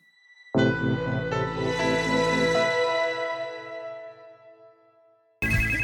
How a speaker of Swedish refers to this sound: Oj, nu ringer chefen här också.